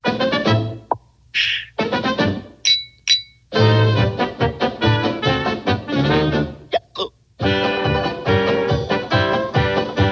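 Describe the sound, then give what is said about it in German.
Bright glass clinks from beer steins and wine glasses, used as instruments, ring out in a handful of short bursts, timed with the beat of a loud, brassy band playing throughout. “Auch Bierhumpen, Flaschenöffner und Weingläser werden nun zu Instrumenten.”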